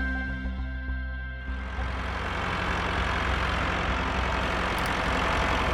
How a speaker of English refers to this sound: It's that sound again, Tractors, the voice of …, and that happy little strum, the squeak of my chair, it all means we are launching into a second season of Tractor Time Podcast by Acres USA